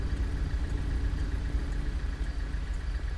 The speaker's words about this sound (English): watch out. This car's getting ready to move.